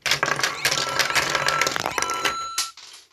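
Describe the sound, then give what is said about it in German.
The toy hammer mechanism of a Lego Super Mario Desert Pokey set rapidly strikes plastic Lego pieces, making a dense clatter of clicks and rattles that ends in a sharp knock before going quiet. “Da gibt es dann auch so ein Schlagding. Ding, bumm. Ja, da kann man dann so schlagen, so mit einem Hammer, so.”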